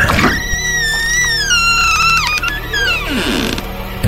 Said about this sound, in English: You go up the steps to the door. You hear someone approaching. The door slowly creaks wide open